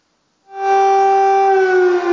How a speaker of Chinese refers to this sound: 在空袭警报声中。信奉东正教的乌克兰人迎来俄罗斯入侵后第二个复活节。